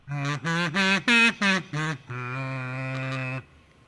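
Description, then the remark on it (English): A kazoo playing scales: it buzzes through six short, nasal notes stepping up and down, then holds one long final tone. The reedy, honking timbre is loud and plays alone, with no talking. “Uh, it I've been kind of just practicing the scales, shall we say, and I could you know I can play the scales now if you want to hear it, just as you know.”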